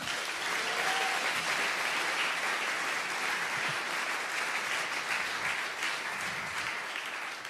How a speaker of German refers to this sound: Gebt ihm einen fetten Applaus. Come on.